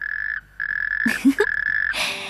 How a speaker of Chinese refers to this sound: 青蛙菲德呱呱呱的又吟起诗来。